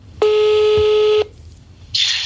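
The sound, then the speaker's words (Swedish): A telephone ringing tone while placing a phone call: one steady, loud electronic tone lasting about a second, a brief silence, then the start of the next ring. No one speaks. “Så nu, nu, eh, ringer vi Martin med finpenisen.”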